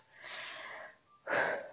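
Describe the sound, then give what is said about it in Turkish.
A deep, drawn-out breath in, clear, followed after a short pause by a stronger, rushing exhale of air. “derin bir nefes alıp perdeyi aralıyorum.”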